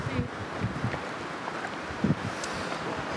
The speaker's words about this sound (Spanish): Permitidnos dos minutos para mirar el. escuchar el viento en el teléfono. Qué bonito.